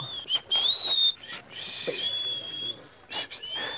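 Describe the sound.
A person whistles a bird-like call, a high sustained tone that slides upward and holds, repeated in a few phrases separated by breathy bursts of noise.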